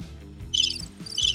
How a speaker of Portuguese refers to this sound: O roxo é o grilo.